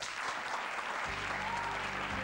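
Dense audience applause welcoming a veteran show-business star, a steady wash of many hands clapping, joined after a moment by a low sustained musical tone underneath; no one speaks.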